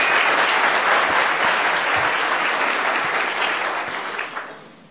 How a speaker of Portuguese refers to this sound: Então uma salva de palmas para os nossos uplines.